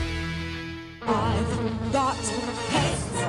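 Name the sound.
mosquito buzzing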